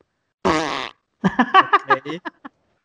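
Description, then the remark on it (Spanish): A voice imitates a fart: one loud, buzzy, drawn-out blast, a brief pause, then a run of shorter sputtering bursts that taper off, clear with no talking. “Creo que alguien comió frijoles.”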